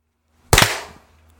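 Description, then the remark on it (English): A brief, loud burst of hand clapping: a couple of sharp overlapping slaps that fade quickly into quiet, with no voices. “Okay, oh yeah, we yeah. should clap.”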